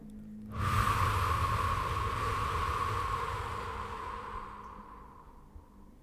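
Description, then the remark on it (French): A long, forceful exhalation after a deep inhale during a guided relaxation breathing exercise: a breathy rush of air that starts abruptly and slowly fades over about five seconds, with no talking. “Soufflez fortement.”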